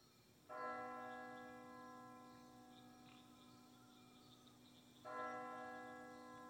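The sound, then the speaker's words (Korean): A church bell that rings every fifteen minutes strikes twice at night, each deep chime ringing out with long, slowly fading overtones, heard from a distance against a quiet background. “15분마다 울리는 웅숭 깊은 교회 종소리가 멀리서 들려왔다.”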